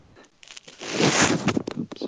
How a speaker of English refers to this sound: Who's rubbing their phone or something?